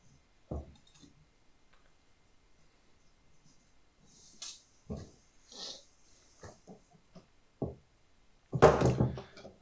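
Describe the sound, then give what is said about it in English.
A person scuffles with their cat while trying to sort it out: irregular thumps, rustles and clinks, with short grunting animal squeals, ending in a louder, rough burst of commotion. No one speaks. “everyone can just hear … fighting with his cat”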